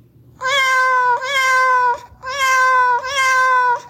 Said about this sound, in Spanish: Eso que escucharon son los maullidos de Kimu